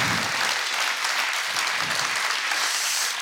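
Steady audience applause fills the whole stretch, a dense, continuous patter of many hands clapping at once, fairly loud and close, with no voices standing out.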